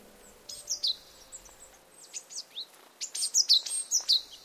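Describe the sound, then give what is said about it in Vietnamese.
A bird perched on an apricot tree branch sings high, clear song that rings out across countryside fields in a quick series of bright chirps and whistled notes, repeating steadily with short pauses and swelling louder toward the end, with no voices present. “Đó là tiếng hót vừa trong cao, vừa sầu thảm, Tiếng chim cứ vang cao, vang xa, khắp cánh đồng quê ấm áp như tình mẹ.”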